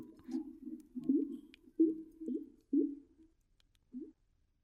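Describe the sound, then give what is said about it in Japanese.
Low, hollow gurgling from what seems a clogged drain pipe behind a washbasin at home: half a dozen moaning, warbling bursts with upward chirps, irregularly spaced, fading out with one short final gulp. “これ自宅の洗面台の奥から聞こえてくる配管が詰まってるっぽい音”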